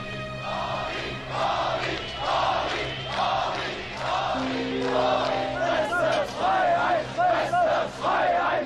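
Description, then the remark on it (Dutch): A large crowd of protesters outside the Palast der Republik chants and shouts "Gorbi, Gorbi", calling to be freed, in rhythmic bursts, loud and sustained, with voices rising and falling together over a steady low hum. “Want terwijl die twee mannen samen met de partijleiding in het Palast der Republiek zitten te vieren, staan buiten koren mensen te schreeuwen: Gorbi, Gorbi, eh, bevrijd ons, doe iets voor ons enzovoort.”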